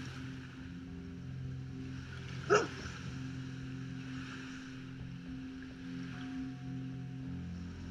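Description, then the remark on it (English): A search dog lets out one sharp, loud bark partway through, ringing over the steady low drone of a boat engine and rushing water, with no one speaking. “Okay, good boy.”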